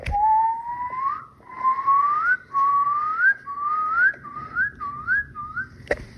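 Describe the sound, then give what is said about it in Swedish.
A man whistles a repeated rising call, six or seven upward-sliding notes in a row, each shorter than the last, imitating a bird, thought to be either a black-throated loon or a Eurasian curlew. The whistling is clear, with no talking. “Han visslade en fågel och han visste inte vilken det var.”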